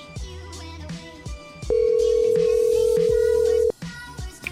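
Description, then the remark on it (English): A phone call is placed to call a man back: one steady ringing tone sounds for about two seconds, loud, over continuous background music. “I'll call him back and yell at him one more time.”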